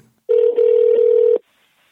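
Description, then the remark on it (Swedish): A single steady ringback tone from an outgoing phone call from Sweden to John Carpenter, one clear burst lasting about a second, loud, with silence before and after. “När du Eh, faktiskt ringde upp till eh, John Carpenter för att surra.”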